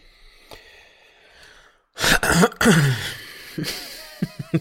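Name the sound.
throat clearing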